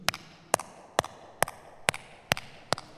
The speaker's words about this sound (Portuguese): Uh, ela explicou uma cena que havia palma, palma, dois tipos de palmas, que eram as palmas surdas e as palmas mudas. Isto é bacana, se quiserem bater palmas de maneira diferente, vou-vos mostrar. Isto é, isto é as surdas.